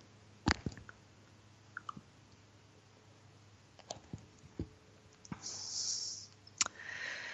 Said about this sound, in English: I'm going to take a sip of my tea here.